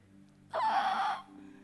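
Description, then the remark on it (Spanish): A voice imitates a defective, squeaking door with a single drawn-out, high-pitched creak lasting about two-thirds of a second, strained and slightly wavering, rising sharply above a quiet background. “Chilla, ¿no? No sé si te ha pasado en tu casa que haya alguna que...”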